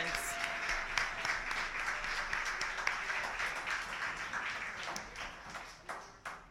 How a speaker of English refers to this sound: Let's clap for the poet, not the judges.